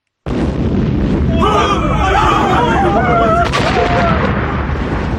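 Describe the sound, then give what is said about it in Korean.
Loud, dense gunpowder fireworks explosions crackle and boom continuously, with whistling streaks rising over the din and a murmuring crowd underneath, starting abruptly and staying intense throughout. A fireworks demonstration set up by the royal weapons office in the middle of the palace in Joseon Korea on New Year's Eve night. “폭발하는 화약의 강도가 전날에 비해 두 배 정도나 크고 강했으므로 구경하던 외의 사신 일행이 지켜보다가 놀라고 두려워하여 혼비백산하였다.”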